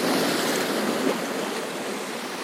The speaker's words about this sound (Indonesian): semakin kencang anginnya semakin kencang juga ombak yang akan menghantam permukaan